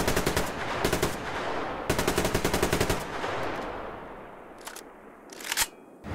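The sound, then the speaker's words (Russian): Loud, rapid bursts of machine gun fire in an online shooter video game, two long strings of rattling shots a second apart, then a quieter stretch broken by a few sharp isolated cracks. No one speaks. “Также игру можно похвалить за саунд, мир и пушки звучат убедительно.”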